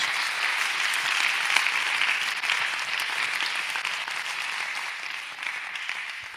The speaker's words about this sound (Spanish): Puedes aplaudir un poco mejor la presencia de Dios.